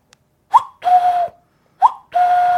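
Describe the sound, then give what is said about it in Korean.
A person imitates a cuckoo call, whistling a short higher note followed by a longer, lower held tone, repeated twice at a steady pace, fairly loud, with no talking. “저는 뻐꾸기 소리를 낼 수 있어요.”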